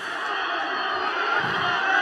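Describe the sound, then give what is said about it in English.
A crowd yells and cheers downstairs after a football goal, a dense, steady roar of many voices that holds at an even loudness for about two seconds with no single voice standing out. “But everyone, you know, whenever anyone would score, it would be absolute mayhem downstairs.”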